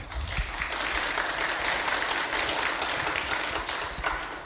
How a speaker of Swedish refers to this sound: Får man applåden innan man har sagt någonting? Det var spännande.